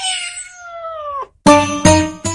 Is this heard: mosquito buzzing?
no